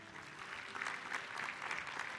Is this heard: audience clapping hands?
yes